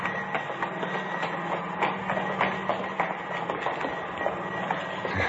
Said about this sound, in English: Air conditioning unit for the theater.